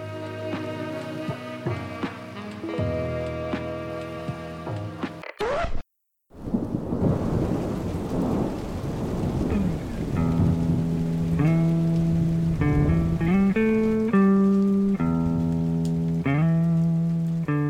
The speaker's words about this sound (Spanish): Pero a veces un día soleado, se transforma en un día de tormenta.